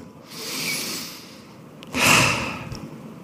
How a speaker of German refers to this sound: Und wenn du nicht mehr kannst machen als schnaufen, wenn das die einzige Art und Weise ist, wie du Zuflucht findest bei Gott, dann hockst du einfach an und dann schnaufst. Und dann merkst du mal, wie dein Körper sich anfängt zu beruhigen.